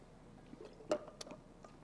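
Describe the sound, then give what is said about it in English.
Someone takes a quick drink from a water bottle, with a soft gulp and a few small wet mouth clicks and smacks. The sounds are quiet, brief and isolated, with no talking. “This is my water bottle. I use it every week. I'm going to take a drink right now because I'm getting a little parched.”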